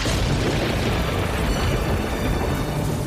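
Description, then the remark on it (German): Loud, steady rolling thunder during a terrible evening storm with lightning and pouring rain, a deep continuous rumble with a dense hissing roar layered over it, sustained without a break for about three seconds; no voices. “Es blitzte und donnerte.”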